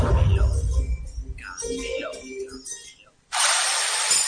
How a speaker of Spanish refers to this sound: este es el ruido de las reformas. Y con Fidel Cocinas suenan así.